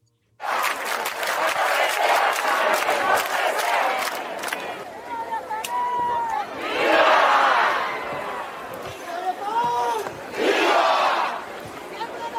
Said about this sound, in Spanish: Pero además de las marchas en contra, digamos, del modelo cubano, hubo también grandes manifestaciones a favor del modelo cubano. Vamos a escuchar un poquito solo para irnos para allá.